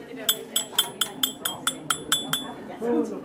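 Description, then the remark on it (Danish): A small metal lapel pin, the kind stuck on a jacket, clinks repeatedly as it is handled, about ten bright, quick taps in a steady rhythm, with a low murmur of voices underneath. “Det er sådan en lille pin, hedder det på amerikansk.”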